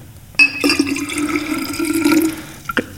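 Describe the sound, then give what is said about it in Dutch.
Water sloshes and gurgles for a couple of seconds inside a plastic bag of water holding fish, taken from a delivered box: a wet splashing with a brief crinkle at the start and a soft thump near the end, no voices. “Er zit hier een zak in met water.”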